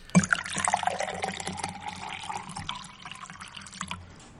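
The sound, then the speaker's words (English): Liquid sounds of someone drinking filtered water, with wet trickling and small splashy gulps that start with a sharp burst and continue unevenly for several seconds, no voices. “I'm still doing the filtered water.”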